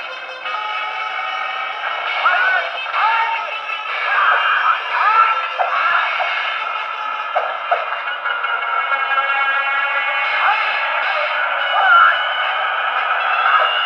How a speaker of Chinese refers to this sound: 这个地方，嗯，第二个地方呢是最后打那个大 boss 曹少卿的戏，里边也是居然用到了特别古早的电子乐迷笛键盘的声音。